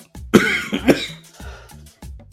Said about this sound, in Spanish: Perdón, pero es que les digo que la tos me trae todavía un poco mal. Bueno, ya, ya casi voy a despedir el segmento porque creo que sí está se me está grabando un poquito la tos.